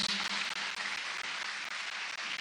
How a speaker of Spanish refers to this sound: Denle un aplauso al Señor.